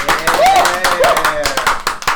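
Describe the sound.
A short burst of lively applause from a small group welcoming a guest, dense irregular clapping for about two seconds, with a couple of brief voiced whoops rising over it.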